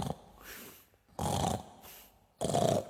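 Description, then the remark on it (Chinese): Heavy, rasping snores of a fat monster asleep in a cave, in a slow, steady rhythm, three loud snorts separated by quieter breathy inhales, with no talking. “胖妖怪昨天打了一夜，累坏了，正在洞里呼噜呼噜睡得正香呢。”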